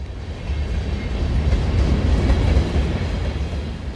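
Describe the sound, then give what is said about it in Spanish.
A train rumbles along the tracks at the old Buenavista railway station, a steady, heavy low roar with a faint rhythmic clatter, continuous throughout, with no voices. “Pero si pones atención, entrecierras los ojos y agudizas los sentidos, aún puedes escuchar el barullo de la vieja estación de ferrocarril de Buenavista.”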